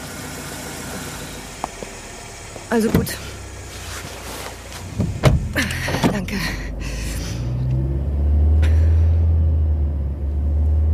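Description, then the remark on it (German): A car engine idles with a low, steady rumble while a few words are spoken, a door thuds shut mid-way, and then the engine swells louder as the car pulls away. “Äh, äh, es ist aber auch gefährlich, zu fremden Männern ins Auto zu steigen.”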